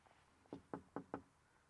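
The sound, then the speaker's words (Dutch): Four quick, evenly spaced knocks on the front door of house number 33 in the morning, crisp, with quiet before and after and no voices. “kloppen.”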